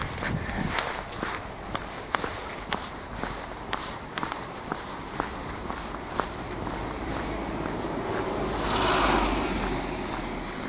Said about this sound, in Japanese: あのー、もうね、あ、向こうから人が来ますね。自転車の人が、ちょっと黙りますね。